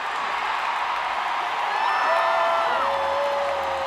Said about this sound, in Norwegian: En liten applaus til han